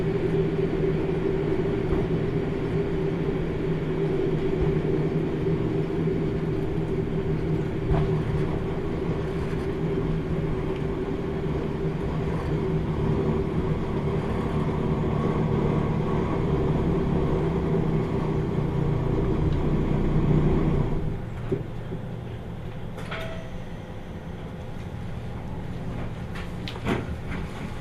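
A JR Kyushu Kyushu Ōdan Limited Express No. 3 runs steadily on the Hōhi Main Line between Tateno and Miyaji, approaching Akamizu Station, a loud continuous low rumble with droning hum, until around twenty-one seconds when the noise drops abruptly to a softer, quieter rumble.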